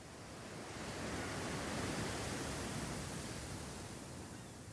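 A steady wash of sea surf, with a single broad swell that rises and then slowly recedes. No voices, just the continuous hiss and rumble of waves on a shore.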